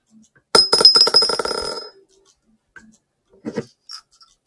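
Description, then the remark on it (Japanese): Dice are rolled on a hard surface for the first round, landing on 3 and 1: they clatter loudly for about a second and a half, a rapid burst of bright tumbling clicks, followed by a few quieter taps and a brief voice. “じゃあ、サイコロでも振りましょうか。”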